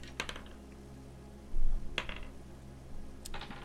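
A single die clatters across a hard surface, rolled for a random roll, in a few sharp, bright clicks spaced over several seconds, each with a brief rattling tail, over a low steady hum and no talking.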